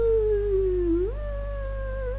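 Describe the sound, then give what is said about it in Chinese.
A steady, moaning howl of night wind whirling around, one sustained tone that sinks slowly, then jumps to a higher pitch and holds there, with a low rumble underneath and no voices. “滋滋滋，打着旋儿啊！这样的风声，怎么听怎么像女鬼的嬉笑，令人头皮发麻。”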